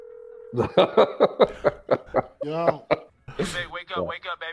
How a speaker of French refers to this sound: J'espère que tu es en train de parler du, téléphone, quoi. C'est la, mélodie téléphone que tu es en train de noter.